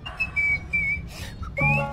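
A series of steady, high whistle notes repeats over a low rumbling background at an event on Corso Umberto I, ending with a louder whistle that slides upward and sounds fuller.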